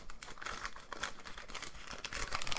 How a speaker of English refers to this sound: Oh no, I ripped the paper. Oh no. Oh no, a lot. ASMR gone bad.